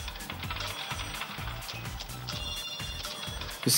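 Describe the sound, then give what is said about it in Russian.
A falling-coins notification sound: a rapid, rhythmic cascade of metallic clinks and rattles over soft low thumps, steady, swelling to a brighter jingle at the very end, with no voices. “Э, друзья, вы понимаете, да, что ну, сейчас это достаточно тихо кажется, в, в темной, э, тихой комнате ночью это будет еще и гулом таким раздаваться по падающих монет.”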